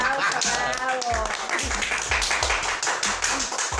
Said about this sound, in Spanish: Ella, eh, denle un aplauso, un aplauso,